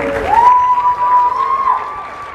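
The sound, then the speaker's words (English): An audience bursts into applause and cheering after a film screening, a dense steady clatter of clapping with crowd noise, while a single long, high whistle rings out over it for over a second. “Give it up, you guys.”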